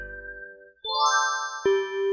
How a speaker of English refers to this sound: A bell rang. School was over.